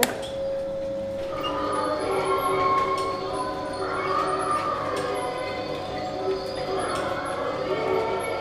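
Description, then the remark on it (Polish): The machinery of a mechanical folk diorama clatters and whirs steadily as it is started up, its rattling running under a wash of tinny tones from a 1970s cassette recording of parish church bells and singing, with faint background chatter, at moderate volume. “Ja już tutaj uruchomię, no niestety maszyneria też trochę robi hałasu.”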